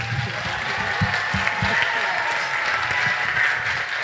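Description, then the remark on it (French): An audience applauds steadily at the end of a startup pitch for Infinity Space Providers, a dense wash of many hands clapping at once, fairly loud and sustained throughout, with a few low voices murmuring underneath. “Heureusement que vous l'avez applaudi”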